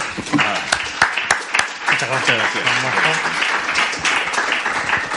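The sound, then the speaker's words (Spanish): Sustained audience applause, a dense crackle of many hands clapping at steady loudness, with voices and cheers mixed in underneath throughout. “Un fuerte aplauso, yo creo, ¿no?”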